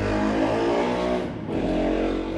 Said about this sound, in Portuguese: Hoje é o dia da celebração das motos também, né? Tem uma moto passando aqui, ela faz questão de avisar.